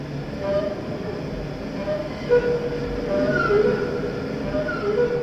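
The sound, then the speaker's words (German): A heavily processed electric cello produces a steady, roaring rumble like a jet engine spooling up, with thin whining tones gliding above the dense noise, loud and continuous throughout. “Er verfremdet den typischen Cello-Sound. Und so klingt es mal, als starte er einen Düsenjet, mal nach einem windigen Tag am Meer.”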